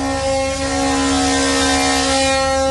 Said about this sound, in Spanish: Bueno, pues la bocina que, que bueno, dicen que se van ya pues separando de lo que es el muelle, de las canoas.